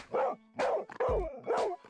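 Puppies bark and yip in quick, high-pitched bursts, about four sharp yaps in a couple of seconds, fairly loud, with no one talking.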